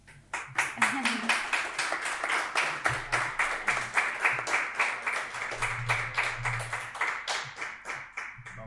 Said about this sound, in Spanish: La verdad es que me da pena que acabe ya la entrevista, pero hemos cumplido el tiempo, así que vamos a pedir un fortísimo aplauso